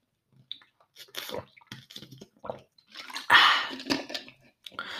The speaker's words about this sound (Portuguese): sabe sempre bem dar um gole de água, bem gostoso.